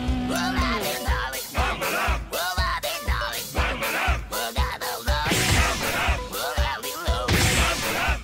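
A loud, driving rock cover plays with a dense, full band sound and strained, shouted vocals over a steady, punchy beat that keeps pulsing throughout.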